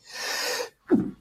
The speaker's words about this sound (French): Pardon. À tes souhaits. Merci.